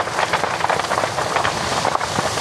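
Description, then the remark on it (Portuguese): Burning wood crackles and pops densely and continuously over a steady roaring hiss in a wildfire with strong wind, loud throughout, with no voices. “O som da madeira a estalar é prova disso mesmo.”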